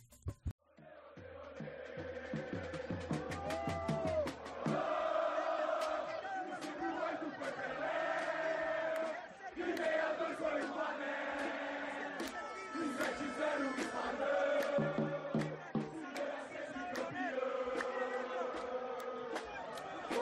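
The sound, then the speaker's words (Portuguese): A large crowd of Brazilian football fans chants in unison in a metro or stadium in Russia during the 2018 World Cup, loud and sustained, with rhythmic shouted phrases naming the years Brazil won the World Cup, and echoing cheers. “Fizeram a festa lá na Rússia, no metrô e nos estádios, por seu mais novo grito enfatizando os anos que a seleção foi campeã da Copa.”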